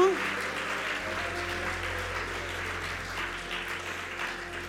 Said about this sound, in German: Applaus für die Production, oder? Applaus Vielen Dank an alle, die das möglich machen.